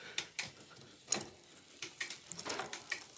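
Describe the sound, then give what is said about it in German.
Gears of a men's bicycle being shifted quickly as the pedals turn: a quick series of light mechanical clicks and ratchet-like ticks, irregularly spaced and fairly quiet, with no talking. “Und jetzt schalte ich mal schnell.”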